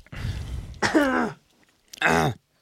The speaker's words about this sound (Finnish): Ei oo koronaa, pieni yskä.